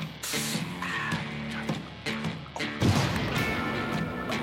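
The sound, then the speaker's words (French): A loud explosion bursts out partway through, a single heavy crash with a rumbling low end, after a stretch of clattering noise and tonal hum, and its noisy tail carries on to the end. “C'était quoi cette explosion”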